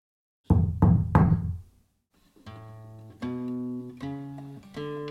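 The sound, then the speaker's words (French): Three firm, resonant knocks in quick succession on the wooden door of a small, simple, humble but well-kept house, followed by soft, sustained musical tones rising in steps. No one speaks. “Les deux dieux arrivent devant une petite maison très simple, humble, mais bien entretenue. Il frappe à la porte.”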